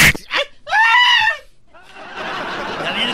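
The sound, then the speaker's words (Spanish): A loud, shrill human scream bursts out for under a second, sustained and strained, then cuts off into a stretch of hissy, rushing noise. “nuevo grito en el 2020.”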